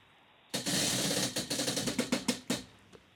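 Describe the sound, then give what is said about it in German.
A prize wheel spins with a burst of loud, rapid clicking that gradually slows, the ticks spacing out into a few separate clacks before it stops. No voices are heard. “Das bedeutet für euch, Alessandra und Reola, das Preisrad ab.”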